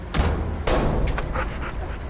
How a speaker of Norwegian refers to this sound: Og mens bombehunden søker rundt konteinerne,